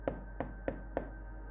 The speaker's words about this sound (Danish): Og bankede på hoveddøren.